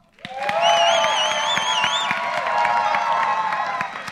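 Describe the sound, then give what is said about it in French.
A crowd of adults breaks into loud, sustained applause for Jesus, dense clapping rising quickly and holding steady, with high wavering cheers and whoops riding over it for the first couple of seconds. “On, veut voir, on va voir si les adultes sont capables d'applaudir Jésus bien comme il 1, 2, 3.”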